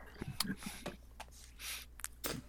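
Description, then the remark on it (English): Several harsh, hard coughs burst out at irregular intervals, each a short rough blast with a noisy rasp between them, with no talking. “That's what most of my coughs have uh, have done over the last Oof.”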